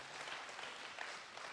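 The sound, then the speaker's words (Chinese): An audience at a talk by Jack Ma applauds in encouragement, a dense, even wash of many hands clapping at once, holding steady without a break for a brief moment. No one speaks. “好，掌声鼓励一下。”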